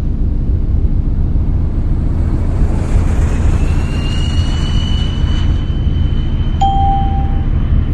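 A single bright bell ding rings out near the end, its clear tone lingering briefly over a constant low engine rumble, with a thin whining tone rising in the background beforehand.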